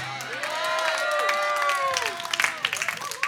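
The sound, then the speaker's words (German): An audience bursts into sustained applause and cheering, dense clapping mixed with rising shouts and whoops from many voices, loud throughout with brief sharper peaks near the end. “Okay, aber mach den Sound für den König größer.”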